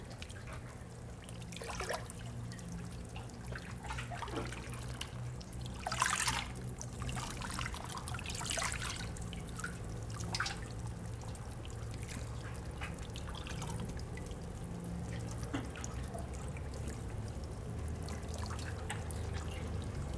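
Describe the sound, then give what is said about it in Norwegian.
Hermaphroditic intertidal creatures, living singly in tiny dwellings in the tidal zone along the sea, feeding, heard as irregular wet clicks, pops and crackles scattered over a steady low watery hum, with a few sharper snaps standing out. No one speaks. “Og hvis vi lytter, så kan vi høre at de spiser.”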